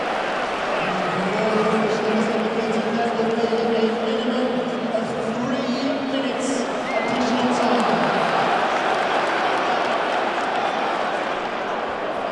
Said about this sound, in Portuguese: E desistiu! e desistiu de fazer a substituição. A torcida adorou. Vamos ouvir a torcida.